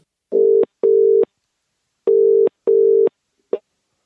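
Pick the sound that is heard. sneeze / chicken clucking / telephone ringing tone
telephone ringing tone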